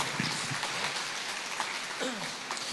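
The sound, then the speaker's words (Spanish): A crowd claps steadily throughout, a dense wash of hands with no pauses, and a few faint voices call out underneath; the applause is given to God, the loving Father. “Dale otro fuerte aplauso a ese papá que es tan lindo con nosotros.”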